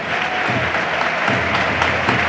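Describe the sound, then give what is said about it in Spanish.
Steady applause from Málaga fans in a stadium for the players at a football match, a dense wash of clapping hands holding at a fairly loud, even level throughout with no voices standing out. “Y los que se quedan lo van a celebrar esas palmas ya a los jugadores, los aplausos.”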